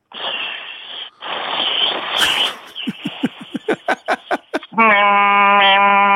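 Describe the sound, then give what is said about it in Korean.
Someone vocally imitates the sound of a cicada in Yeouido Park: a long raspy buzz, then a quick run of about nine pulsing chirps, ending in a loud, sustained nasal drone that sounds almost like bleating. “매미 여기 여의도 공원에 있는 매미 소리 자, 한번 해보도록 하겠습니다.”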